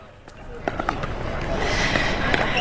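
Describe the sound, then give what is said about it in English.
Several sharp, hollow pops of pickleball paddles striking a ball ring out at irregular intervals at a court in the Presidio, San Francisco, set against a steady wash of outdoor background noise and faint voices. “Now, it is a more distinct and staccato noise than what tennis balls and rackets makes.”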